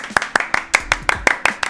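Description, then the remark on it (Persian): A short burst of steady, rhythmic applause, about nine sharp hand claps in quick even succession, fairly loud, with no one talking. “دستش درد نکنه تشویق کنید واقعا شعور والای این انسان رو نشون میده به افتخارش”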